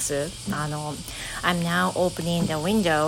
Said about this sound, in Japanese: So, can you hear the sound? Yeah, as you can hear, cicadas are buzzing. 今回まあ、早速ねフレーズなんですけどセミがミンミン泣いております I don't know since I'm living in the countryside Anyway, the sound of cicadas is so loud